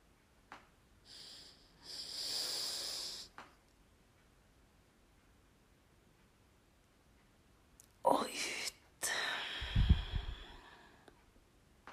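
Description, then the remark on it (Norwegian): Slow, deep breaths drawn in and let out during a guided breathing exercise, a few long airy inhales and exhales, with quiet pauses between them. “Og vi puster inn en gang til.”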